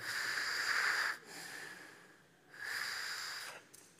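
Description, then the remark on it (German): Two long, strained inhalations drawn through a fist held in front of the mouth, each a thin whistling wheeze, fairly loud, separated by a brief quieter breath; a person imitating labored asthmatic breathing. “Wenn du dir nicht vorstellen kannst, wie Asthma ist, nimm mal deine Faust, halt sie vors Mund und beginn einzuatmen.”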